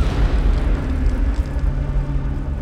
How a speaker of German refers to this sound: Das Grollen der Lawinen klingt wie ferne Donnerschläge. Die Geräuschkulisse ist beunruhigend.